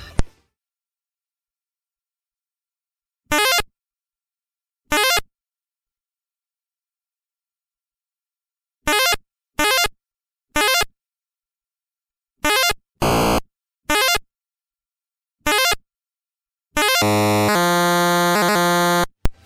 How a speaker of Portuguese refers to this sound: O que eu acho mais legal do, do, do som do Pitfall